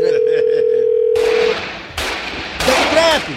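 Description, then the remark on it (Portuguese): A steady, mid-pitched telephone dial tone hums for about a second and a half over faint clicking, then gets cut off as three loud, sharp bursts crack in sequence. “É o jeito de ligar então, tá aí.”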